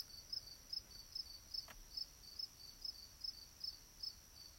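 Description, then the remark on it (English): Crickets chirp steadily outdoors at night, a high, regular pulse repeating about every half second over a quiet background hiss, with no voices present. “You hear the crickets out there, everybody?”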